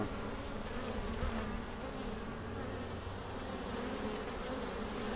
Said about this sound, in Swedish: Du, kan vi gå ner och kika på bina? Absolut. Jag skulle gärna vilja spela in lite surr. Ja, det går så bra. Ja. Om du vågar. Ja. Det var väldigt bra tajmat. Idag flyger de ju som fasen. Ja. här låter det alltså.